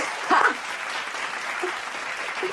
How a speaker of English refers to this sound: I need a round of applause for that one